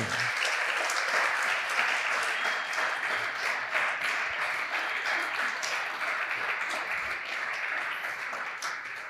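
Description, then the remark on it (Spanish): An audience claps their hands for the preached word in steady, dense applause that holds loud and even for several seconds, then eases slightly toward the end, with no voices standing out. “Wow, junte sus palmas por esta palabra.”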